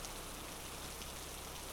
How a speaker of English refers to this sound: The first minute and a half are just rain noises, some thunder booming in the distance, and pitch blackness.